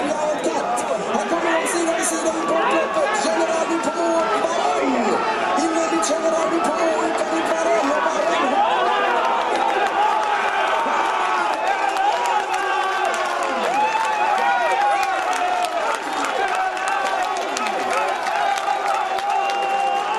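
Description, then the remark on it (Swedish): A large crowd roars and cheers continuously at a horse race as the horses come through the final turn, a dense, loud wash of many voices sustained for the whole stretch without letting up. “den duellen och det jubel som, som ju kom där i sista svängen.”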